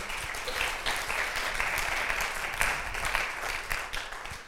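A crowd applauds steadily for several seconds, a dense, continuous patter of many hands clapping at an even, fairly loud level with no voices rising above it.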